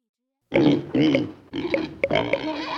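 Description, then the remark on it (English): A pig oinks and grunts in a quick series of about four loud, nasal snorts, one right after another with barely a pause between them. “P is for pig.”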